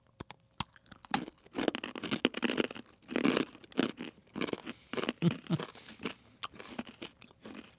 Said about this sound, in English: That is a very crunchy pretzel.